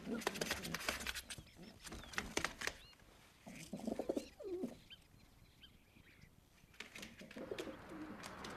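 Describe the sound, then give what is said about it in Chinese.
A flock of pigeons being fed biscuit crumbs in a park coo in soft, low warbling bursts amid fluttery patter and brief sharp scratches, the calls overlapping irregularly and moderately loud, with quieter pauses between clusters. “来来喜欢和别人分享，他把一些饼干渣分给一群鸽子们吃。”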